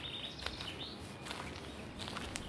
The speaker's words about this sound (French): J'ai vu des arbres ancestraux. J'ai entendu le chant des oiseaux.